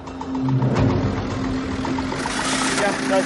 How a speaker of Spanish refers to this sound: Conoce estas dunas como la palma de su mano y nos aconseja colocar unos matojos bajo los neumáticos para conseguir la tracción necesaria para poder sacar el coche.